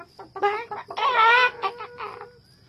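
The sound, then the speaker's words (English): Chickens screech and cackle at the sight of Zuko in a burst of loud, overlapping squawks, rising to a harsh peak in the middle before trailing off into scattered clucks. “They screeched and cackled when they saw him.”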